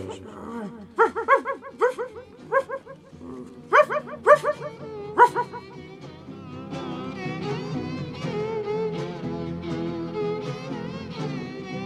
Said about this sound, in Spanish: Ese aire que sopla tantito antes de la madrugada se llevó los gritos de su canción y ya no pude saber si me seguían hasta que oí pasar por todos lados los ladridos encarrerados de sus perros